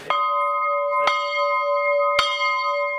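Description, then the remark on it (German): The bell of the prayer house of the Heinitzbruch quarry rings three times at a slow, steady pace, each loud metallic strike blooming into a long humming tone that sustains and overlaps with the next. “Wir haben die Glocke aus dem Bethaus.”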